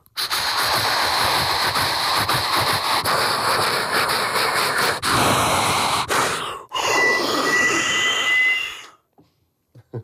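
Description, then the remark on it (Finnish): A voice imitates an approaching train with loud, breathy rushing and hissing noises, sustained for about nine seconds with a brief break near the end, then abruptly stopping. “No se, siitähän me fantasioida, että jos me voitaisiin tehdä niin oikeasti, hei, tuot tulee juna.”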